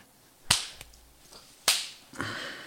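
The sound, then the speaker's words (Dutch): Two sharp, loud hand claps about a second apart, made to sync a recording, followed by a softer slap-like knock, with no voices. “moeten we ook nog even klappen voor Maurice?”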